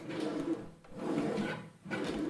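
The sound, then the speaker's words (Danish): An empty drawer slides open with a rumbling wooden scrape, moving in two or three quick pushes with brief pauses between. No voices are heard. “den er tom den her skuffe”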